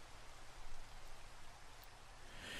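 Steady rain falls throughout, a continuous soft hiss of drops with no pauses or voices, fairly even in loudness from start to finish.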